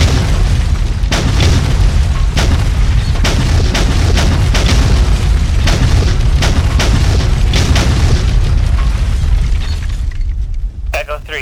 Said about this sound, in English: Attack to Shadow 1. Good hits. Bombs on target.